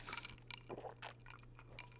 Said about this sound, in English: Let me just take a quick drink here